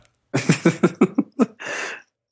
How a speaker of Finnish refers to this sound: Tätä puhuminen pistää yskimään.